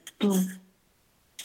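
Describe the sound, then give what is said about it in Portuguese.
A voice briefly imitates a harmonica: a single breathy, buzzing note about half a second long that slides downward in pitch, followed by quiet. “O som da gaita é assim.”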